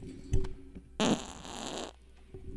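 A squeaky fart lasting about a second, with a strained, high, whistling tone over a raspy, sputtering body. It starts abruptly and cuts off, preceded by a brief soft thump.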